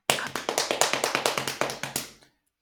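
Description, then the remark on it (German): Hands slap rapidly on thighs in a steady drumming pattern, about fifteen crisp pats over two seconds before stopping abruptly. No voices are heard. “Ähm, Darf ich auf meinen Schenkel klopfen”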